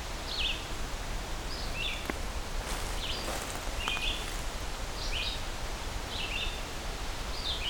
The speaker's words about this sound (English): one lone red-eyed vireo.